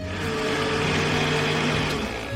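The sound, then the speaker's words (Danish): A kitchen blender runs steadily, a loud, constant motorized whir with a dense grinding texture throughout, no voices present, blending finely torn pieces of newspaper or old paper with a lot of water. “Så skal man rive fine stykker og putte ned i blenderen med en masse vand.”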